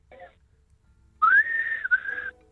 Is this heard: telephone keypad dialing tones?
no